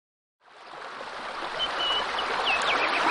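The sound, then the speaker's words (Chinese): A small river at the edge of a forest flows with a steady, rushing babble of water that starts after a brief silence and grows slightly louder, while faint bird chirps flicker above it. “在森林的边上，有一条小河，河水哗啦啦的流向远方。”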